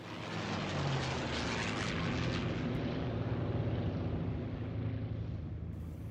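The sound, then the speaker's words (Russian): A Yak-3 propeller fighter plane's engine drones steadily and loudly throughout, a continuous low rumbling hum with layered harmonic tones and a broad rushing noise, no voices present. “И вдруг я слышу, гудит, гудит мой самолет.”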